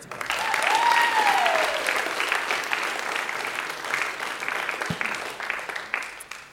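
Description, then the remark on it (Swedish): A church audience applauds as a speaker is welcomed to the front, the clapping swelling quickly and holding as a steady, dense wash, then thinning slightly toward the end. A brief rising whistle-like tone sounds over the clapping early on. “Vi tar en till applåd.”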